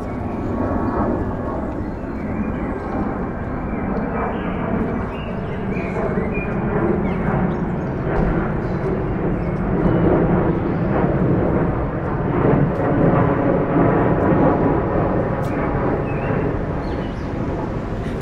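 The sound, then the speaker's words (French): A loud, steady jet-engine roar of a low-flying airliner coming from the West to land at an airport in West Berlin, heard from East Berlin, fills the whole stretch, swelling slightly midway as it passes overhead, with no pauses or other sounds. “C'était assez curieux parce qu'ici c'est Berlin de l'Est et on voyait et on entendait les avions qui passaient de l'Ouest pour atterrir dans cet aéroport de l'Ouest et donc on voyait une ouverture mais on n'y avait pas accès.”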